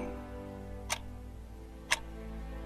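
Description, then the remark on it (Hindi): A large clock ticks slowly in a courtroom, two sharp, evenly spaced ticks about a second apart, standing out clearly against a low, steady background hum with no talking. “पूरे court room में बस एक बड़ी सी खड़ी की आवाज आ रही थी”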